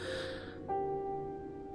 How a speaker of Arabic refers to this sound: شهق شهقة قوية وما إن أغمض عيناه لثوان ليتنفس الصعداء